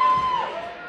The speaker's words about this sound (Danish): I kan høre skrig i baggrunden. Folk de er simpelthen så glade.